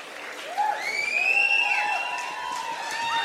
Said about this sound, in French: Ouais, les gens ne s'y trompent pas, ils applaudissent. C'est live, hein